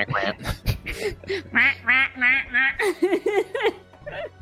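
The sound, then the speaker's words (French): A voice imitates ducks, letting out a rapid string of nasal quacks in loud bursts, with snickering laughter mixed in. “Trois canards dans cette grange ouais.”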